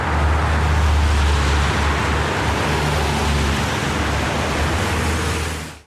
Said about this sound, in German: Und wenn es angenommen wird, donnern die Autos und die Lastwagen noch mindestens bis 2030 über die Rosengartenstrasse.